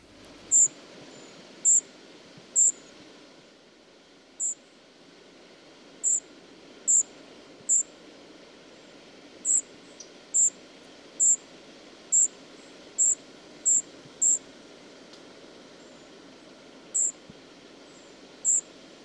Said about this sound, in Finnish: vielä harmitti, että miksi juuri tänä päivänä sataa tihuttaa, että niillä on vähän karu alku sitten, kun lähtee pesämaljasta ja, ja joutuu sateeseen, mutta tälleen ne poikaset piiskuttaa hetkeä ennen kuin avaran maailma odottaa ja ottaa ne omakseen.